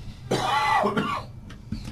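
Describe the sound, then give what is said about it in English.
A single harsh cough away from the microphone, slightly muffled, followed by a brief throat-clearing rasp and quiet room noise. “Thank you for not coughing on the microphone.”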